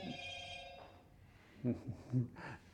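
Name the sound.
telephone ringing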